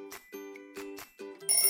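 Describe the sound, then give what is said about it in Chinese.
A timer, set to remind a child to drink water, rings from inside a schoolbag on the way to school: four quick, bright electronic chiming bursts in a steady rhythm, then a sharper, higher tone at the end. No one speaks. “书包里传来叮铃铃的声音。”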